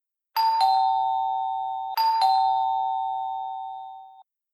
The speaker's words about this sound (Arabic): ظل الغريب واقفا امام الباب وراح يقرع الجرس وينادي قائلا